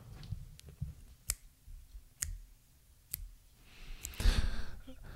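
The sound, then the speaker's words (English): Sharp mouth clicks pop out one at a time in a slow, steady rhythm, fairly crisp, followed by a breathy exhale or sigh near the end. “Rootin', tootin', and making noise from my mouth again.”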